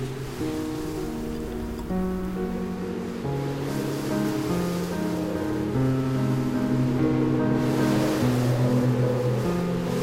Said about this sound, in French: je regarde ce qu'il y a. Un bateau qui passe.